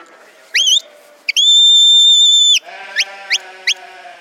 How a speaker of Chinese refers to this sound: 那这个时候吹了哨音，让羊群集中注意力，再去引导它，就会赶得比较快了。 我们来听啊，这个只有羊听得懂的哨音。